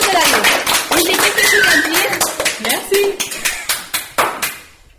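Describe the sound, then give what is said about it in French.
An audience at a school farewell applauds the people leaving in a dense, steady patter of many hands, with a few voices calling out over it, before the clapping thins to scattered claps and fades out. “Donc je pense qu'on peut applaudir toutes ces personnes parce qu'elles nous ont beaucoup aidé.”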